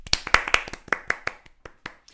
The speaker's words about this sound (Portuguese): E palmas a nós.